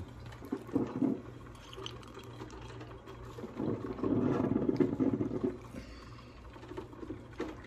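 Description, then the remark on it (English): A coffee pot brews, bubbling and gurgling in uneven bursts that swell louder midway, with a steady low hum underneath and no one talking. “Like in Whistling Diesel's video, and that coffee pot really gets going. It's making a mean cup of coffee right now.”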